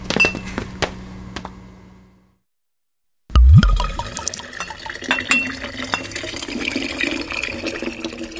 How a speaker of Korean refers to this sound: 차갑고 진득한 액체. 효소를 옮겨 담으면서 가끔 손등이나 볼, 옷 같은 곳에 튀기도 했다.